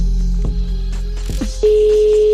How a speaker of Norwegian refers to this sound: Det er telefonsvareren til 9. Men jeg fikk ikke tak inn på telefonen. Jeg prøvde å ringe den flere ganger.